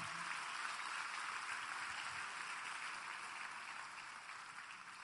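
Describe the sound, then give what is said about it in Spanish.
A church audience gives a loud applause to the Lord, clapping steadily, a dense wash of many hands applauding together for several seconds with no one speaking over it. “Ahora dale un fuerte aplauso al Señor.”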